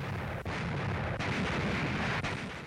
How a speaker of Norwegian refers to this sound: All through that night and into the broad light of day, British guns poured tons of shells at Rommel's Invincibles, and tough fighters though they are, they simply couldn't take it.